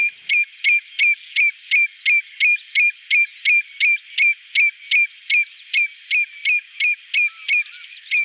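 A common redshank's song, delivered in flight: a long, steady series of clear, ringing whistled notes repeated rhythmically about three times per second, loud, with no other sounds.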